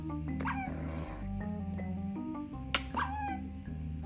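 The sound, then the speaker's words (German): High, thin whimpers from a video game wolf, a few short whining cries rising over a steady, busy backdrop of game music and sounds. “Ein Wolf.”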